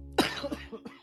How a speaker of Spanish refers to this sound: Perdón. Ojo. La tosedera.